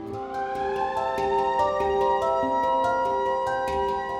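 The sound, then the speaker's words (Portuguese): A fire station alarm siren wails steadily and loudly, its layered tone rising slightly at first and then holding, with a regular ticking pulse repeating through it. No one speaks. “O alarme tocou e na porta do quartel estava a Juliana.”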